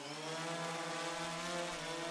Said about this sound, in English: We are testing rotors now and deploying if successful. The sound of a helicopter blade starts up as video feed begins to lift in the air.